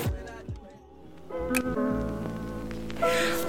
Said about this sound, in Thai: แต่ว่าที่ไรก้าแอบหยอดมานิดนึงในโฆษณาเขาเขาบอกว่าเสียงชัตเตอร์ตัวนี้ดีมากเออแช่แบบหยอดกันแค่นี้ถ้าคนแบบชอบอ่ะก็จะรู้ว่าแบบเวลาเรากดดังกรึ๊กอย่างเงี้ยผมจะอินเสิร์ตเสียงกรึ๊กชัตเตอร์เข้าไปด้วยแล้วกันว่ามันแตกต่างกันขนาดไหน